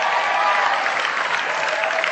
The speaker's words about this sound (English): Great support. Give her a round of applause.